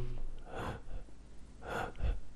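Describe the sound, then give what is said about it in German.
A voice imitates shallow gasping breaths, mimicking being unable to breathe deeply when COVID affected the lungs: two quick airy intakes about a second apart, fairly soft, with no talking in between. “Ich konnte nicht atmen, also ich natürlich konnte ich atmen, sonst wäre ich ja tot, aber ich konnte nicht tief mhm. einatmen. Ich war die ganze Zeit nur so”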